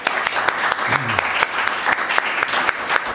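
Steady audience applause, a dense patter of many hands clapping at an even, fairly loud level, with a brief low voice murmuring underneath near the start, applauding a correct guess that the wine is a Riesling.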